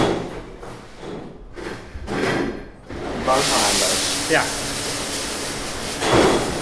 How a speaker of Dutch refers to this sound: We staan hier in de spoelkeuken van Tivoli Vredeburg. Ja. Eh, best wel een hoop herrie hier.